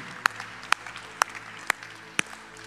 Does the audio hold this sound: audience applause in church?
yes